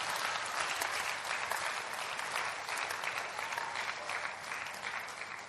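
A steady wash of audience applause in response to a speaker's call to clap, many hands clapping at once in a dense, continuous crackle that holds at a fairly even loudness for several seconds.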